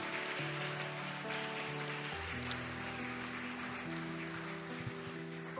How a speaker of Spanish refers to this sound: Un aplauso fuerte para nuestros hermanos en el nombre de Jesucristo.